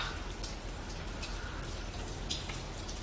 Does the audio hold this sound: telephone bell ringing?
no